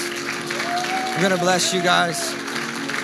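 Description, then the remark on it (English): Steady audience applause for Jesus fills the room, a dense wash of many hands clapping throughout, while a man speaks loudly over the top of it. “If you believe that, just lift up a big round of applause to Jesus.”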